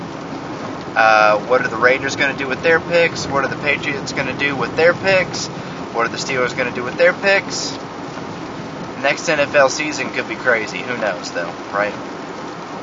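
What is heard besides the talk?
road noise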